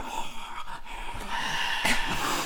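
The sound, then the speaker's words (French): A voice imitates the anxious, heavy breathing heard in a horror film's point-of-view scenes: a steady run of rough, airy breaths that swells louder toward the end, with no words spoken. “Euh, et euh, donc pendant toute cette scène, déjà, on a des, des, moments en vue subjective, encore à nouveau, avec la respiration de l'angoisse,”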